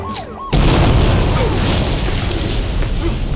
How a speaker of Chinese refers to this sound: 老妈子的手下去拿希拉，正好踩中引线，引爆炸弹。